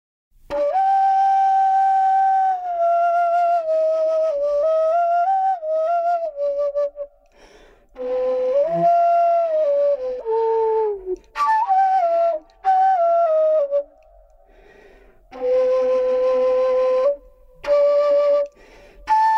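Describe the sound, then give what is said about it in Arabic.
A solo ney flute plays a slow, breathy melody from a Sama'i Bayati piece in the Bayati maqam, with sustained ornamented notes in phrases broken by short pauses. The flute sounds steady, with no voices. “بما أنه الناي موجود والدكتورة والعازفة موجودة فخلينا نسمع مقطع بآخر الحلقة نعم سأعزف لكم مقطع من سماع بياتي”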